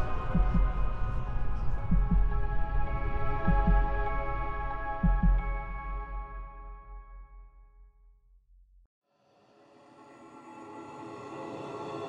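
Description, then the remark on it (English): A deep, pounding heartbeat thumps in heavy double beats about every second and a half over a loud sustained drone, then fades to near silence before a new droning tone swells in. “It is the beating of his hideous heart.”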